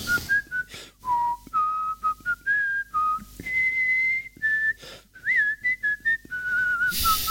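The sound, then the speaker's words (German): A single person whistles the Eurovision theme, a bright, fanfare-like melody: a steady run of held and stepping notes separated by brief breaths, clear and fairly loud with no talking. “Eurovisionsmelodie.”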